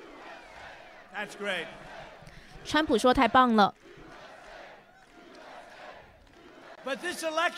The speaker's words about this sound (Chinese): 你看看这些人群多热情呢！你看他们爱你，看到了吗？他们爱执法人员。我没有预料到他们会这么热情。现在民众大喊 USA。